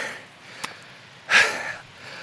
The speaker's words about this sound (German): anderthalb Stunden Aufstieg hier. Du bist aber auch wieder am Keuchen